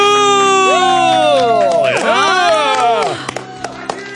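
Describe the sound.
A studio audience applauds and cheers loudly during a radio show, many voices whooping and yelling at once with rising and falling cries, then the noise drops off near the end into scattered, fainter sounds.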